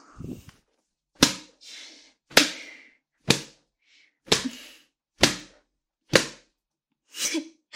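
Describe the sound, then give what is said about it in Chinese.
A whip lashes repeatedly, about seven sharp, loud cracks falling roughly once a second, each a bright snap with a short trailing swish, with nobody speaking. “被你的母上大人这样用鞭子抽打着下面，爽吗？”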